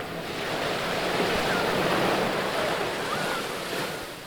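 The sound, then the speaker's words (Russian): Steady roar of sea waves washing onto a southern beach, a broad continuous wash that swells and eases slightly, with some wind rumble and no voices. “Да, и вот здесь где-то э, во всем этом дивном южном шуме”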